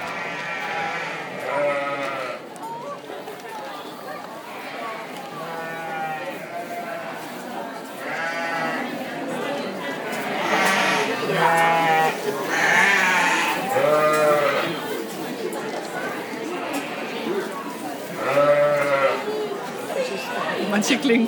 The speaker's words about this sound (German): Also wir gehen gerade auf einen offenen Stall mit jede Menge, ja, soweit ich das sehe, sind das fast alles Schafe zu.